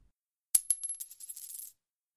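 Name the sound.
coins dropping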